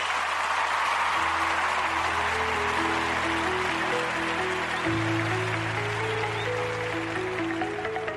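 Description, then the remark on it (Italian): Steady applause sound effect from a crowd, a dense wash of clapping that keeps an even level throughout, with a soft low musical tone stepping along underneath. “e con questo direi andiamo in sigla finale e poi in, eh, quindi in applausini e poi in sigla finale.”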